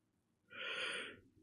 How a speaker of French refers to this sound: Eh, c'était le bâillement de fin.